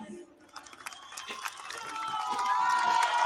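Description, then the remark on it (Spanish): A crowd claps and cheers, dense crackling applause that swells steadily louder over a few seconds, with higher voices and whistle-like cries rising through it toward the end. “No le aplaudo, por favor no le aplaudo.”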